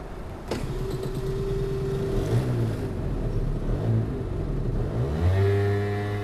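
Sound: scooter engine revving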